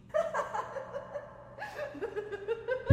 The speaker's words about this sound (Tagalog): Bigla akong kinilabutan sa hagikik na tugon ng nasa loob ng banyo.